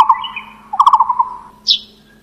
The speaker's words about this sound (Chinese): 五色鸟，